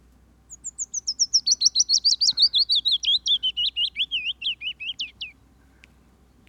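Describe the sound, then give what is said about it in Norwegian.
A willow warbler sings one clear, sweet phrase of rapid notes that gently descend in pitch over about five seconds, distinct against a quiet background. “Nydelige løvsanger.”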